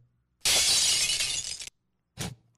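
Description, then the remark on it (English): A loud glass-shattering sound effect with a bright crash that lasts over a second, cuts off sharply, then a shorter second burst of breaking glass follows after a brief pause. “We got to undermodulate the glass breaking.”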